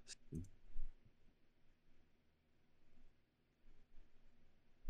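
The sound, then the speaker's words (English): A couple of sharp, crisp computer keyboard clicks right at the start, then near silence with only faint, sparse tapping and a low hum. Nobody speaks. “And why can't I type it? What the Your keyboard shit.”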